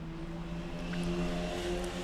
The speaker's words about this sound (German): Scheiß Motorräder. Wer fährt in der Stadt Motorrad?